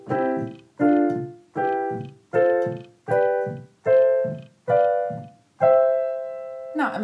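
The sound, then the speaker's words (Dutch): A steady sequence of eight chords, each built from a scale by skipping every other note, struck one-handed on a keyboard instrument, each ringing briefly before the next, with the final chord held longer. Clear, no voices. “Dus als je het totaal hebt, klinkt het zo.”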